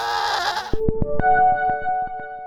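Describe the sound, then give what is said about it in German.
A single loud, quavering goat bleat, cut off abruptly and followed by a few bright plucked musical notes ringing out with no talking. “Glückliche Ziegen sind die wichtigste Zutat für unseren Qualitätsziegenkäse.”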